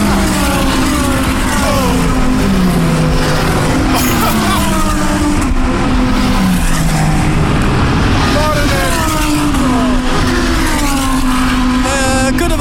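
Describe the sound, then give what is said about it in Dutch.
Formula 1 race car engines roar loudly and continuously, their high whining pitch sweeping down and up again as several cars scream past one after another. “Stel stellen dat dit iets meer herrie maakt dan mijn eh, Volkswagen ID4.”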